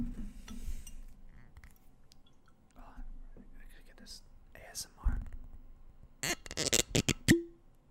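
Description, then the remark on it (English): A bottle of Jefferson's Ocean Aged at Sea whiskey is uncorked with a soft pop, then glass clinks and the whiskey pours in a quick run of gurgling bursts, with quiet whispering in the background. “Should I pop open some of this Jefferson's Ocean Aged yeah, at Sea?”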